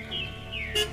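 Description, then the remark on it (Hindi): A flock of birds, along with some bats, suddenly takes off after someone calls out. High chirps and tweets are followed by a brief burst of wing flutter near the end, moderately loud, with no one talking. “और इस एक आवाज के साथ कुछ चमगादड़ एकदम से उड़े वहां से कुछ पक्षियों के झुंड भी फड़फड़ाते हुए उड़ गए”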